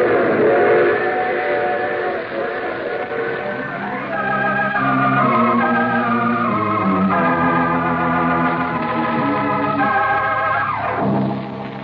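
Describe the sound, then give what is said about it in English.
A train rumbles along steadily while its whistle sounds in long, sustained chord-like blasts that shift pitch, loud, with no voices. “You see, I take the same train every week at this time.”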